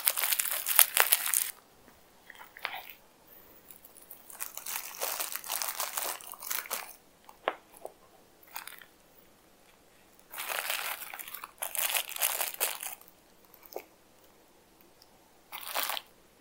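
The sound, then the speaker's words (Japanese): Crinkling packaging rustles and crunches in several bursts as a microphone is unboxed and opened for the first time, fairly loud, separated by short quiet pauses, with sharp crackly spikes throughout; no one talks. “どんな感じに、楽しみというか、まあ今初めてちょっと開けてみたので、あすごい嬉しいな でもちょっと大事に大事に扱わねばっていう感じですね。”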